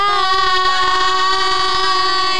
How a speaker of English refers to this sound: Why do trains have horns?